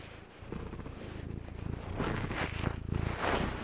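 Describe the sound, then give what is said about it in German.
A male cat named Sirius purring softly and steadily, recorded with the device held right at his mouth, a continuous low rumbling vibration that swells slightly louder partway through, with faint rustling in the background. “Ja, hoffentlich hört ihr das, er schnurrt nämlich gerade irgendwie leise.”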